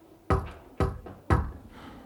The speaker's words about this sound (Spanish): Luego escucho un golpe tímido en la puerta.